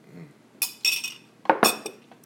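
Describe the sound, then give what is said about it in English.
Several bright, crisp glass clinks in quick succession, like glasses knocking together in a toast, with a couple of softer taps between them and no talking. “Cheers, cheers, cheers, to black woman. Cheers to my black woman, man.”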